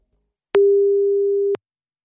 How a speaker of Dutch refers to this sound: Zullen we even gaan bellen? Ja, wel spannend hoor. Oké, eh, we gaan hem even bellen.